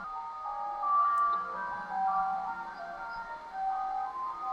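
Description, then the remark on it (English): A tinny ice cream van chime plays a steady, sustained melody from outside, somewhat muffled, continuing throughout with no voices. “Yeah, van, there's an ice cream van outside.”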